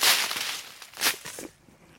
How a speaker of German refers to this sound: Also wenn ich jetzt hier so durchs Laub laufe, das raschelt schön.